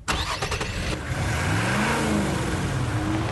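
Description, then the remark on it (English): The 317-horsepower V8 engine of a 2015 Nissan Titan pickup truck starts with a few sharp clicks, then revs up loud, its deep rumble rising and swelling steadily with no one talking. “It's our biggest, baddest, most capable pickup truck that sports a beefy 317 horsepower from a massive V8 engine”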